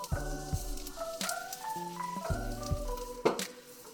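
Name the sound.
shrimp sizzling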